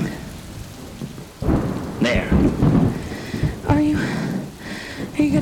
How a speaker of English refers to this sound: The rain had let up. It was just drizzling now.